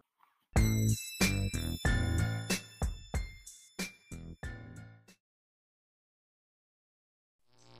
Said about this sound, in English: Groovepad for the sick West Coast transitions you heard before this plug and right before we get back to the program